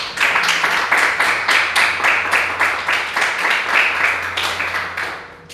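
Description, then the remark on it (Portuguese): A church audience applauds together in praise of Jesus at the close of a talk, a sustained wash of many hands clapping at steady volume for several seconds before tapering off slightly at the end. “Em nome de Jesus, está encerrada a minha participação e as palmas que adorem a Jesus.”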